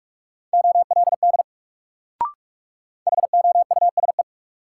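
Two quick bursts of Morse code at 45 words per minute, each at a single steady mid pitch, a rapid string of short and long beeps spelling a word, separated by a pause with one brief click.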